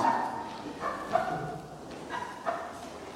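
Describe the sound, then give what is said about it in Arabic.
A person imitates a dog, letting out a few short, yappy barks in uneven succession, moderately loud against a faint background. “عملي صوت كلب”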